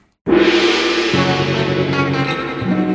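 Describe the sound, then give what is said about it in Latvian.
A loud, brassy signal tone bursts in abruptly and holds for almost three seconds, its low notes shifting slightly partway through, with no voices over it, signaling the start of the first round. “Tagad signāls signāls pēc signāla pirmā kārta.”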